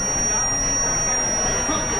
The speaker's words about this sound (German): Und ich laufe anscheinend auf ein Hindernis zu. Der Piepton verändert. Jetzt hat der Piepton aufgehört. Jetzt laufe ich gerade auf eine Wand zu. Und das signalisiert mir halt wirklich piepsend, hier Achtung, aufpassen.